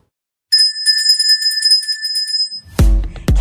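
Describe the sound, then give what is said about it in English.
A small bell is shaken rapidly for about two seconds in a home or studio office, rung to celebrate achieving a sale or goal, its bright metallic tone ringing loud, then cut off by a couple of heavy thumps. “That is the bell of success.”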